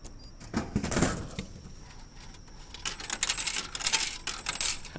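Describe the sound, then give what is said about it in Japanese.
Coins clatter and drop into a vending machine, a quick burst of bright metallic clinks near the start, followed by more scattered jingling and rattling coins over the next few seconds. No one speaks. “自動販売機の音こちらも聞いてみましょう”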